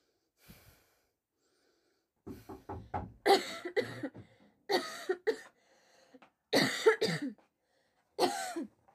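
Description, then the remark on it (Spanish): A person coughs repeatedly, harsh hacking bursts coming in short clusters with brief gaps and strained breaths between them, over several seconds. “Ya estás tosiendo.”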